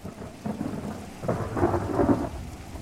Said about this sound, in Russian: Скоро дождь хлынул ливнем